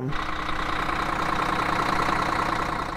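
A Karosa City Bus 18 articulated city bus (Renault Agora L, also known as Irisbus Agora) idles steadily at a DPP storage yard, a continuous rumbling drone with a broad mechanical hum that holds even throughout, with no voices.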